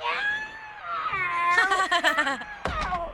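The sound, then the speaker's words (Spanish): A cat wails from inside a spinning washing machine, heard through a telephone held up to the machine, in a long, rising and falling yowl that becomes louder and more strained, then breaks briefly before a final cry, with a dull low thump beneath it. “Porque ahí le va otra vez, le voy a poner la bocina a la lavadora para que escuche el gato.”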